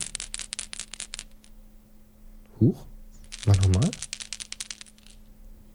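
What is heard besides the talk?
dice rattling and rolling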